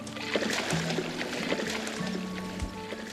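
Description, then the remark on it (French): Water rushes and splashes steadily, like a river current churning, with a few sharper splashes breaking through the constant flowing wash. “Comme il ne savait pas nager, il fut emporté par le courant.”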